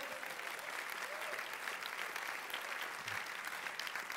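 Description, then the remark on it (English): A church audience at Church Unlimited claps steadily and densely for about four seconds, welcoming its City audience, the applause holding an even, fairly loud level throughout, with a few faint voices cheering beneath it. “Let's give them a clap, shall we? Cheer them in.”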